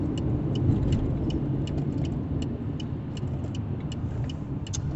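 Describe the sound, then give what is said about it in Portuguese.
Steady low road rumble from a car on the move in traffic, with a faint, regular ticking over it, continuous, with no one talking. “Eu dei passagem pro cara achando que ele tava pior. E ele não fez nada, não se mexeu, não usa espelho retrovisor.”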